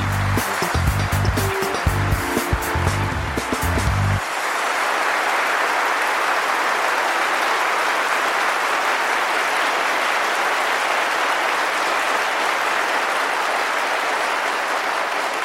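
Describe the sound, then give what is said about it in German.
A brief musical sting with strong low tones opens, then dense, sustained applause takes over, a steady roar of many clapping hands that stays loud and even for over ten seconds, greeting the two hosts at the start of a data protection show. “Was für ein tosender Applaus”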